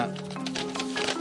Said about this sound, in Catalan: I sona així, aquest sobre, l'obrim, a dins hi ha